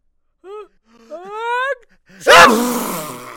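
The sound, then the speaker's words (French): A voice imitates a bear's sneeze: two rising, wavering breathy 'ah' build-ups, then a loud, explosive 'choo' burst that trails off into a noisy breath. Expressive, performed alone. “L'ours bouge un peu son nez, euh, dans l'espoir de ne pas éternuer, mais.”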